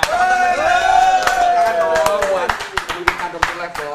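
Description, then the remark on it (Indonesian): Scattered, irregular applause from a small audience, sharp claps picking up after a second and continuing unevenly, while a voice speaks and exclaims over them. “wah wow, bener tepuk tangan dong buat ah.”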